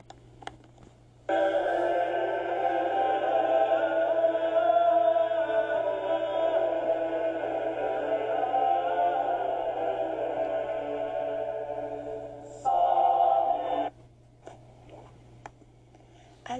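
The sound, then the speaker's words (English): Medieval choral polyphony, one leading voice carried over sustained lower voices, singing steadily for about twelve seconds before a brief final phrase, with a faint low hum underneath. “The last piece I will be playing for you is from Perotin, and that is the Salvatoris hodie.”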